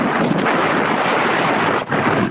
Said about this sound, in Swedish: Vad gjorde du? Jag blåste på min mikrofon. Alltså chilla, du kommer ta sönder våra lyssnares öron.